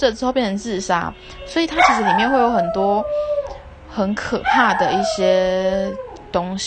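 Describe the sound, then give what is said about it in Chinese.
A dog barks and lets out long, wavering howls, rising and falling in pitch, loud and persistent beneath a person who keeps talking over it. “不好意思，我狗有点崩溃”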